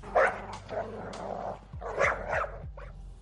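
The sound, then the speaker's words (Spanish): A dog at a house barks again just after the front door shuts, repeatedly in short, harsh bursts with a rough, growly edge, moderately loud, with no one speaking. “Nada más cerrarse la puerta de la casa, el perro volvió a ladrar.”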